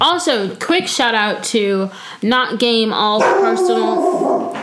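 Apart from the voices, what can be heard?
dog barking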